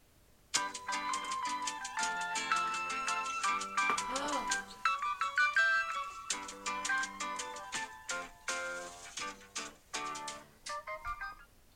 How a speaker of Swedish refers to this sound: Um, jag har tio låtar, tror jag det okay. som är intro till ett tv-program eller ett barnprogram mm. eller en serie. Mm. Så ser vi om hur många du sätter tänker jag. Ja. Nu spelar jag också upp från min mobil så, så om ljudet är... Ja.